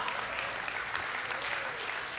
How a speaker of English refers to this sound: In fact, I got to ask, how many of you uh, you are a product of Chi Alpha? You went through Chi Alpha, NSU, OU, OC, yeah. Hand, give these folks a huge round of applause. Yeah.